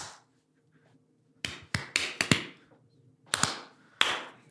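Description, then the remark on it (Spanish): About seven sharp hand claps from someone at a concert, landing at uneven, stumbling intervals with pauses between bursts, clearly off the beat. No one speaks. “Son de los que aplauden así de...”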